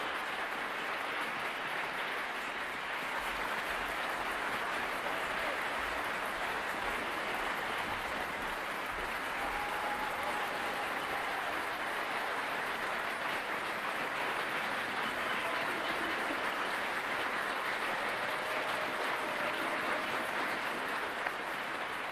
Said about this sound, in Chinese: 而2021年的维也纳新年音乐会有着非常特别的含义。尽管没有现场观众的参与，但是通过线上云端的技术，在现场的艺术家们仍然可以听到、感受到来自世界各地乐迷们的掌声。